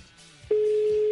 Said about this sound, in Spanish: Estamos marcando.